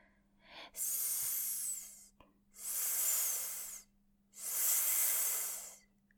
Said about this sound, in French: Elle amène sa flûte près de son oreille et, et, elle entend un léger sifflement, comme un ronronnement, mais en S plutôt qu'en R.